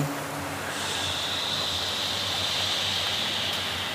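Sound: river water flowing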